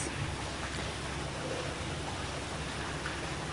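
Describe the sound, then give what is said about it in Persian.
Water fountains in the courtyard of Radio Tehran at Arg Square splash in a steady, unbroken rush, a dense hiss of falling water that stays at an even level throughout, with no voices. “این صدا صدای فواره های آب تو حیات رادیو تهران میدون ارگ احتمالا دیدینش”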